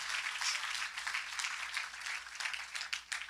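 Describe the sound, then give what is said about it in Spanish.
An audience applauds God in thanks for 11 years: dense, steady clapping from many hands that keeps going for a few seconds with no voices over it, surging slightly near the end. “Si es para Dios, déle ese aplauso.”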